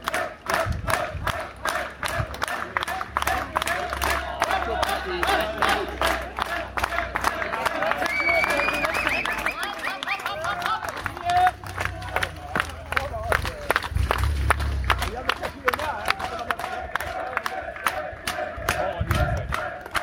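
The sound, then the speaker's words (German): A crowd of spectators on a steep climb of a race claps steadily and rapidly as a Kazakh female rider works her way up the steep wall, with shouts and cheers rising over the dense applause, which stays loud and continuous throughout. “Eine Kasachin wird hier mit Applaus die steile Wand hochgepeitscht.”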